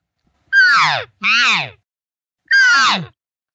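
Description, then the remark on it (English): A person's voice imitates a cow elk call: three loud, nasal mews, each sliding downward in pitch, with two in quick succession and a third after a short pause. “All of a sudden, you could hear this one cow, and she would do this.”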